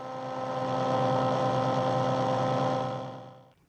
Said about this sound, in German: Dreht man etwa die Frequenz eines alten Radios auf das Rauschen zwischen zwei Sendern, hört man den Urknall.